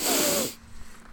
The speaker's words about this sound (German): Man, man hört mich im Hintergrund so ab und an mal schmatzen, so. Weißt du? Und äh, ja, so ein bisschen einatmen, so.